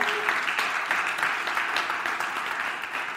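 A crowd claps steadily for the worship band, a dense, continuous wash of many hands at a fairly loud level, with no one talking over it.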